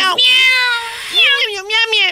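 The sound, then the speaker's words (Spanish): Two drawn-out, wavering, loud meows, the second rising and falling in pitch; a human voice seems to be imitating a cat meowing. “Miau, miau, Los gatos gobiernan en Estambul.”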